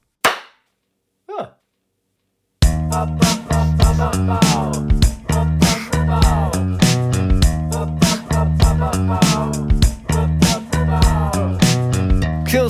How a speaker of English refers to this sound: is the next song we're going to look at, and this is what it sounds like.